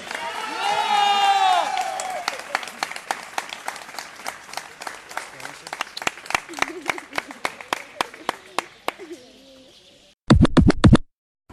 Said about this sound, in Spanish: ¿O podéis besaros, un fuerte aplauso y que vivan los novios.